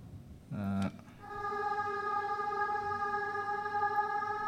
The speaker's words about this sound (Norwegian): Det er et kor her som uh